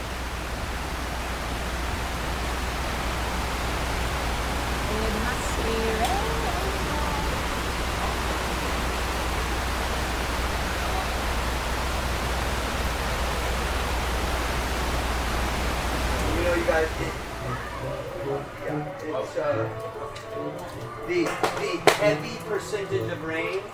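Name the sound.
running water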